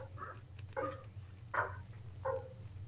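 Dogs bark four times in short, spaced bursts, sounding somewhat muffled over a steady low hum, with no one talking.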